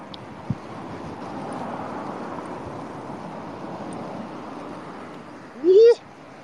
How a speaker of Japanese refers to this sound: いや、風強っ。すげえ。